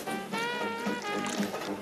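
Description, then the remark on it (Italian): Hot water pours steadily into a cup, a continuous splashing stream whose ringing tone climbs as the cup fills, with no voices over it. “Che? è? Acqua calda? Voilà, termoscotch. Per un dollaro a tazza.”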